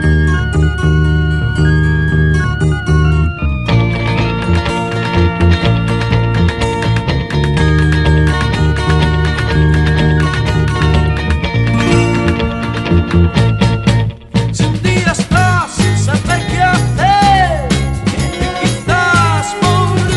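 A 1960s Spanish pop cover version plays loud and steady throughout, a full band with driving rhythm and bright melodic lines, briefly dropping out for a moment near the end before surging back.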